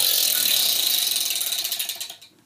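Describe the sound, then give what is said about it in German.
A red-and-blue prize wheel spins with rapid, dense clicking that gradually slows into distinct, spaced-out ticks before stopping on red; fairly loud, with no voices. “Wir haben hier ein Glücksrad bei uns und je nachdem, welche Farbe eintritt, rot oder blau, wird entweder eine Motivationskarte gezogen oder eine philosophische Frage gestellt.”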